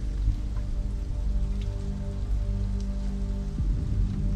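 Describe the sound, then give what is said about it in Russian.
Steady, heavy thunderstorm rain pours without a break on the road to a valley over a stormy mountain pass, a dense hiss of drops over a deep, continuous low rumble, with a few brighter drip taps standing out. No voices. “Скверная погода застала меня по пути в долину, дорога в которую лежала через грозовой перевал.”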